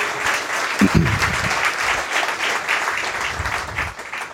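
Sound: audience applauding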